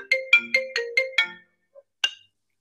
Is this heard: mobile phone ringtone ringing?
yes